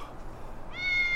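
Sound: cat meowing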